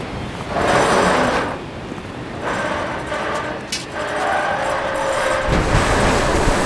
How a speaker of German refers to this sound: Tom, wirf den Anker.